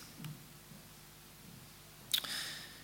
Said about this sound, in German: Schon sind die Schweine am Steilufer angelangt. Jetzt hört man bereits das laute Platschen von Schweinen, die auf dem Wasser aufschlagen.